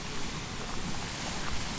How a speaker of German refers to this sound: Im Hintergrund hört man schon das Rauschen und Plätschern des Springbrunnens. Das wird ziemlich laut zu hören sein, ne?